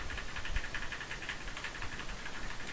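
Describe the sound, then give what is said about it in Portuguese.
Rapid, continuous clicking of keys on a mechanical keyboard, typed to test whether a microphone picks it up, a steady stream of sharp taps over a faint background hiss, with no voices. “Eu vou mexer aqui um pouco no teclado para vocês verem se escutam.”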